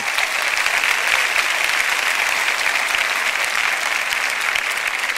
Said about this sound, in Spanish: De un aplauso fuerte al Señor.